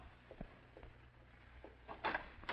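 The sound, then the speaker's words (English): Soft, muffled footsteps of a man in a dark suit walk away from a front door and fade down a hallway, a handful of uneven steps against a faint low hum, with no one speaking. “And in a short time, you hear his footsteps fading down the hall.”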